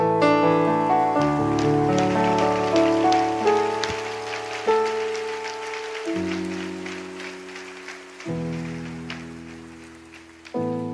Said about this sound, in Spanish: Dale gracias a Dios. Y vamos a darle todos palmas al Rey. ¿Qué le parece?